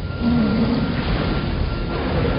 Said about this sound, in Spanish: La cámara desciende hacia la orilla. El mar está encrespado.